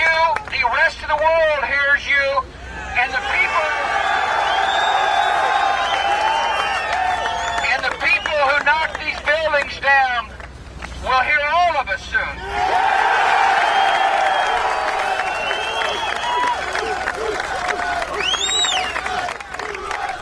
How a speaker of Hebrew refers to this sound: והוא קיבל מחיאות כפיים, ואנשים בכו מדמעות.